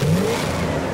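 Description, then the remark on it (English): A race car engine roars loudly and revs up, its pitch climbing sharply as it accelerates, filling the short burst with a steady mechanical howl and no voices. “Cars that sound like this.”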